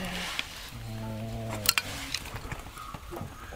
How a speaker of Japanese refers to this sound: でちょっとしばらく置きましょうかねちょっと太い枝の部分にね火が入っていくのはぜる音がしてきました